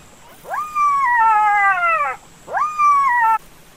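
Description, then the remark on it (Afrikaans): Two drawn-out howls from a pack of jackals in the distance, a long wailing cry that rises then slowly sinks, followed by a shorter one after a brief pause; clear and fairly loud with no talking. “En toe, op 'n dag, hoor jakkals 'n trop jakkalse in die verte huil.”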